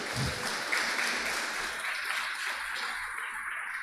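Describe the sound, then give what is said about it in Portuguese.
An audience bursts into steady, sustained applause for Jesus, a dense wash of many hands clapping together, loud and continuous throughout with no voices standing out. “Vamos dar um forte aplauso para Jesus?”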